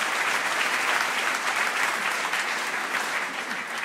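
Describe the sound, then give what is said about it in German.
Steady audience applause, a dense wash of many hands clapping at an even, sustained level for several seconds with no voices standing out. “Und also wirklich, äh, nochmal einen Applaus.”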